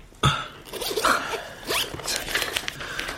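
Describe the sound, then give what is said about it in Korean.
A sheet of paper being handed over by a psychiatrist for drawing one's state of mind and rustled, a quick series of crisp, crinkly swishes and scrapes spread over a few seconds, with no one talking. “제가 종이 하나를 드릴 테니까 지금의 심리 상태를 그림으로 한번 그려보세요.”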